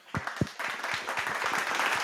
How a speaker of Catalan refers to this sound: Un aplaus, un aplaus. Aplaudeix, aplaudeix.